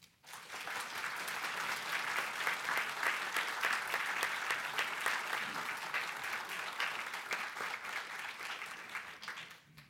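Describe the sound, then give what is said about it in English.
An audience at the Virginia Historical Society applauds steadily for about ten seconds to welcome speaker Diane Kiesel, a dense, even patter of clapping that swells quickly, holds, and tapers off near the end, with no one speaking over it. “So please join me in a warm VHS welcome to Diane Kiesel.”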